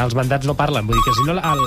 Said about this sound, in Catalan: Merda, això és el telèfon dels de l'auditor.